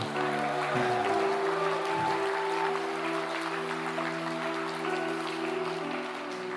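A large crowd claps continuously for several seconds in applause given to the Lord, a dense, steady wash of applause over a sustained low musical drone, with no speech.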